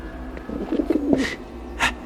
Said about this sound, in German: Dann gurrte die Taube in ihrem Käfig